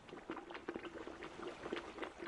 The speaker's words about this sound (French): L'eau bout dans la marmite.